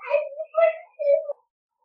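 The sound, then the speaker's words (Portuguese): A young child cries in three short, high-pitched wailing bursts, each separated by a brief pause, before the sound stops and silence follows. “tá chorando aqui.”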